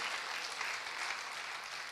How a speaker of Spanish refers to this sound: ¿Le das un aplauso al Señor? Dale el aplauso al Señor.